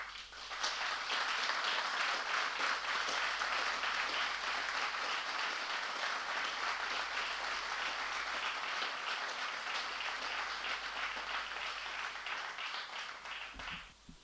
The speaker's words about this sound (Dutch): Ik denk dan ook dat het heel erg gepast is als ik iedereen om een kort maar luid applaus vraag ter ere van commandant Jos Plessers en ter ere van zijn brandweerpost en zijn geëngageerde medewerkers.